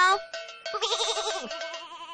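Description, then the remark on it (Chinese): Many sheep at a sheep farm bleating in quick succession: a few short bleats followed by long, wavering, quavering baas. The calls are fairly loud and sound without any talking. “哇， 好多绵羊哦！”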